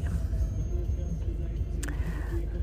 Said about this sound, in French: Il y a 3 heures pile, on est dans la voiture.